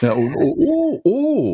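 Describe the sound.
A voice makes a few drawn-out, exaggerated "oh" sounds of surprise, each swooping up and down in pitch, fairly loud, with a short break before the last one.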